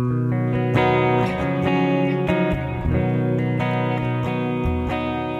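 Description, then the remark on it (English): An electric guitar plays a series of sustained, ringing chords through a subtler reverb preset for a song's verse, with a gentle effect tail, steady and fairly loud, each new strum blending into the last. No one speaks. “And now maybe we're going back to the verse and I want the more subtle sound.”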